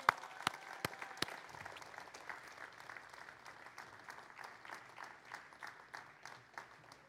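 A crowd claps steadily for several seconds, starting with a few sharp claps that swell into dense, sustained applause, with no one speaking.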